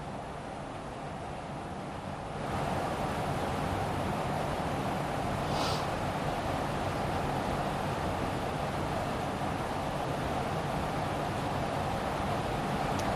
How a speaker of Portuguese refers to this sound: Gente, tá caindo uma chuva lá fora, agora, agora e agora. Incrível, uma barulheira.